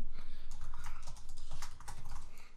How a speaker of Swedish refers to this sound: Nu hör vi att man klickar på, på ett tangentbord här. Det är nämligen jag som gör det.